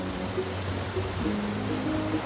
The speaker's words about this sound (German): Stege über einen, ich will es jetzt nicht einen Wasserfall nennen, aber einen Fluss, der im Berg runterfließt. Ähm, irgendwie sieht es sehr cool aus alles. Hat ein bisschen was Traditionelles. Ich finde es sehr süß. Und das Wasser sieht so klar aus.